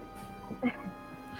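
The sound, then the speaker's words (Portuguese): A dog gives a short whimpering yelp and a soft bark, brief and fairly faint, over a low background murmur that may include voices. “Aquela cachorra!”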